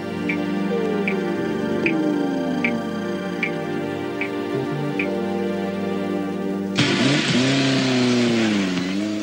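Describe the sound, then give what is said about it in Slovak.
Racing car engines at a motor racing competition drone and shift pitch, with steady ticking in the background, then a loud roaring rev bursts in near the end as a car accelerates. No one speaks. “tam sú nejaké zvuky automobilových súťaží”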